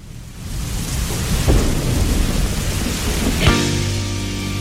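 Steady rain hisses throughout with a low rumble of thunder, and a sustained musical tone swells in over the downpour near the end.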